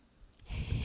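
A single rough, breathy snore from Gypsy, a sleeping pet, a low rattling inhale that swells over under a second, fairly quiet, with no one talking.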